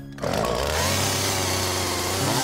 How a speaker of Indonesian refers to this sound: Ketika terdengar ada orang mulai menebang pohon dengan gergaji mesin, suara gemuruh membuat Sylvie beroleh kesempatan.